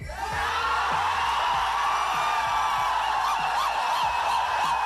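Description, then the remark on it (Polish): A packed cinema audience in the United States erupts in sustained, loud cheering, whooping and yelling as characters begin to appear on screen, a dense wall of excited voices with a single shouted exclamation standing out, continuing steadily throughout. “Ludzie pierwszy raz jak w kinach zobaczyli, że coś się zaczyna dziać, że oni się zaczną pojawiać, brzmieli tak.”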